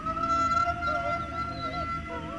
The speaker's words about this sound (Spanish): El sonido nacía como un pequeño quejido relajado y alargado para después terminarlo en un quejido intenso y doloroso.